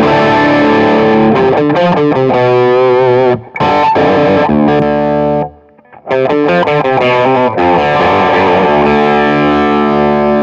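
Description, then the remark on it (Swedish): Overdriven electric guitar through a Warm Audio Centaur clone overdrive pedal, playing sustained, harmonically rich chords with a creamy, saturated tone, loud throughout with two brief pauses between phrases. “Centaur heter den i alla fall. Nu är det warm audio. Den låter i alla fall mycket krämig.”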